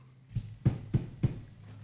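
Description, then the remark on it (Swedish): Four soft, evenly spaced knocks on a front door, fairly quiet and muffled, over a low steady hum with no talking. “Ni vet inte hur lång tid som har gått när ni hör en lätt knackning på dörren.”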